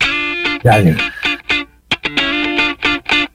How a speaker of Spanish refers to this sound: Escuchamos un poquito de música tuya. Eh, eh, hay mucha. Este, este programa lo, van a escuchar un montón de, personas que te quieren mucho, así que escuchamos un poco de música y volvemos.